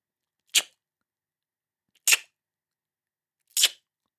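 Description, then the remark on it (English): Three crisp lateral tongue clicks, made by pressing the side of the tongue against the upper side teeth and pulling it away rapidly, evenly spaced about a second and a half apart, sharply percussive against silence, with no talking between them. “Basically, you press the side of your tongue against the upper side teeth and pull it away rapidly.”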